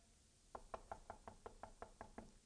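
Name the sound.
knocking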